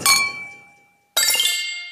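Two bright glass clinks as glasses touch in a toast, in the Wörthersee-Rosental region of Carinthia, Austria: the first rings out and fades over nearly a second, then a short silence before a second, busier clink with a shimmering tail. Fairly loud, no voices.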